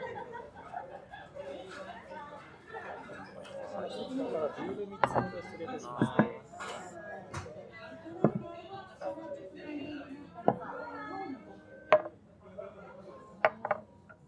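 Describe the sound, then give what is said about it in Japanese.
Beer glasses clink in a toast, several sharp, bright clinks ringing out at irregular intervals amid a busy backdrop of overlapping voices and chatter with occasional light laughter. “ビール来ましたね。乾杯しましょう、乾杯。”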